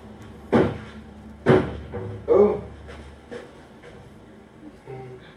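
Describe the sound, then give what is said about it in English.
Three dull, heavy thumps about a second apart as an adult repeatedly bumps into a closed cabinet door without getting it open, in front of a 14-month-old child, followed by quieter knocks and faint room noise. “So I should just say a hapless adult can't open a door, uh, 14 month old.”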